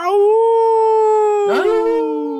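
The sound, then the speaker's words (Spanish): A single long, loud howl held at a steady pitch, with a brief rough break in the tone near the end before it trails on. “Ahora sí, ya con aullido mejorado y todo.”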